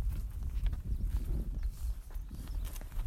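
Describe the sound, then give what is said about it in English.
A little Arabian mare's hooves clip-clop at a steady walking pace while she is ridden to herd cows, with irregular thuds and a low rumble of outdoor background noise and no talking. “So that's Pistol. She's my girl a little Arabian mare that I got.”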